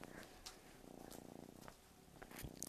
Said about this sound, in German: Es ist eine Katze. Unser kleine, kleine Babykotz. Hoffen wir jetzt wie es gerade entspannt ist. So. Jetzt habe ich die Babykatze und mein Handy auf der Hand.